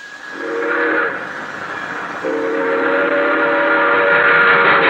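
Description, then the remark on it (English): An express train roars past at night in San Amado, a prairie town, its steady rumble building as the whistle sounds twice: a short blast, then a longer drawn-out wail that carries through to the end. “An express train roaring by.”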